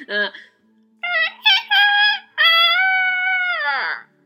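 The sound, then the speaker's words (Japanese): A person mimics a rooster crow with their voice: a brief clipped note, a few quick choppy syllables, then a long sustained high tone that bends downward and fades at the end. “これは、コケコッコに聞こえなくはないなって自分でも思います。”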